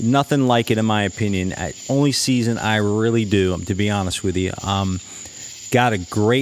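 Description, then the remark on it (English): Crickets chirp outside on a summer night at sunset in July, in a steady, continuous high trill throughout, sitting quietly in the background beneath a man talking into the microphone. “Stepping out of the studio for tonight, you can hear the crickets outside. It's a beautiful summer night, sunset in July.”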